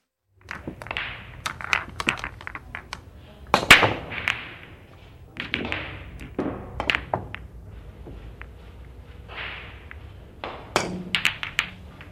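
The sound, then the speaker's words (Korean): Sharp, crisp clacks of billiard balls being struck in a billiard hall, scattered irregularly with occasional quick double knocks and a few louder cracks, over a low murmur of background activity and no clear speech. “음, 공치는 소리 경쾌하죠.”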